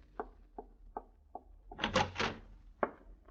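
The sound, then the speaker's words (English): Four quick knocks on the wooden door of a guest's chambers, then a louder rattle and scrape as the door is unlatched and pulled open, ending with a single dull thud, with no voices. “Open the door.”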